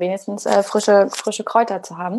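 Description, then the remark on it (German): A dog's tail wags and thumps repeatedly against a tabletop, making quick, irregular knocks underneath a person speaking steadily. “hören es auch einige äh, Zuhörer und Zuhörerinnen gerade seinen Schwanz wedeln, dass hier immer gegen die Tischplatte knallt”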